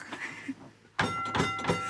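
A historic tram's bell, rung at a stop, clangs three times in quick succession after a brief quiet moment, each loud metallic strike leaving a bright, sustained ring.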